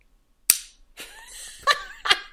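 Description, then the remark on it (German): A pen strikes a glass three times with sharp clinks, each leaving a brief bright ring. Soft chuckling or murmuring fills the gap between the first and second strikes. “Warte, ich stoße hier, vielleicht kannst du daran hören, wie mein ja. äh, Stift gegen das Glas donnert.”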